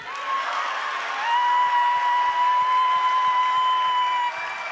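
A crowd claps and cheers steadily for several seconds, a dense wash of applause with a sustained high whistle-like tone held over most of it.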